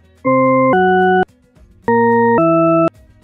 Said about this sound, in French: Écoutez cette séquence. Est-ce que vous entendez des sons ascendants ou descendants C'est-à-dire grave aigu ou aigu grave.